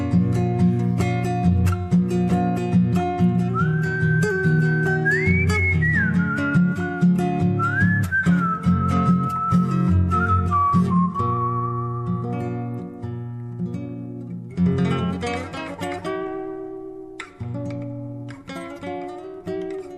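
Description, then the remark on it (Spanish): A person whistles a tune with sliding, wavering notes over steady instrumental accompaniment; the whistling fills the first half, then the music carries on alone. “Taroneé mi moro pampa y ya me largué al galope chiflando como si nada.”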